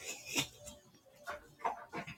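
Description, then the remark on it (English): A dog barks in a few short, sharp bursts spaced irregularly, fairly quiet, with no talking over it. “Now if I now if I come to the door, oh he's been barking, he was barking nonstop.”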